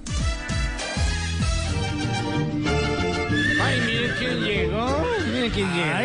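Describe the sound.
A horse called My Little Pony whinnies in a loud, wavering, high-pitched call that rises and falls near the end, over a dense, busy background with voices underneath.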